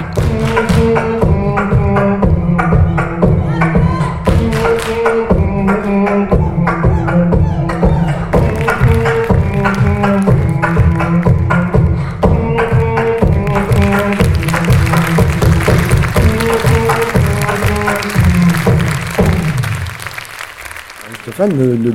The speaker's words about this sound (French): son adaptation joue complètement la carte de l'interactivité et la participation active du public. Comme on l'entend ici, on chante, on applaudit dans la salle et on danse sur le plateau, puis dans les couloirs de la criée.